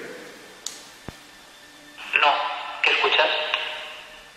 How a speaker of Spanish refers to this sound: Es el ruido blanco que hoy yo, verás. Como si lloviera. El ruido de la lluvia en el techo, no sé. No sé, es bastante inquietante esto, la verdad.